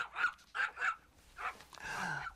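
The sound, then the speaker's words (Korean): A small Pekingese dog yaps excitedly on meeting another dog during a walk: three quick, high-pitched barks in a row, then a brief pause before a couple of rougher, longer bursts of barking and whining. “그런데 하루는 방글이를 데리고 산책을 하는데 같은 페키니즈 강아지 한 마리가 방글이를 보더니 반갑게 달려오더라고요.”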